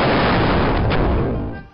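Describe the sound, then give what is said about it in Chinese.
A loud, sustained atomic bomb explosion effect, a broad rumbling roar that holds steady for over a second before tapering off at the end, with no voices. “別人看到你衝出天的牛氣，以為原子彈爆炸了呢。”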